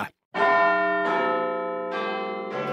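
The bells of Big Ben's clock tower chime four loud, resonant strikes in a slow, steady sequence, each tone ringing on and overlapping the next, with no voices present.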